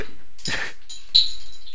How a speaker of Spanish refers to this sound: ¿qué hiciste? Vos casi bota el monitor.